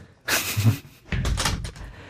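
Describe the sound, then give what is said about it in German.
A door is pushed shut in two movements: a brief swishing thump, then a longer rattling close with a low thud and latch-like clicks, no voices. “Die Türen dazu.”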